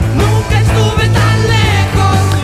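A 51-year-old Argentine rock album plays loudly, with a steady, pulsing bass line and full band texture filling the sound, and no talking over it.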